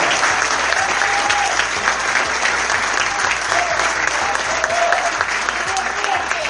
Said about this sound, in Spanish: Fuerte el aplauso, renovamos el aplauso.